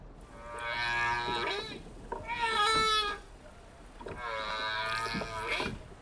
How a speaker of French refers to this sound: Lorsqu'elle chante, la baleine à bosse combine des phrases qu'elle répète pour former un thème, et plusieurs thèmes mis bout à bout forment une chanson qui peut durer jusqu'à 30 minutes.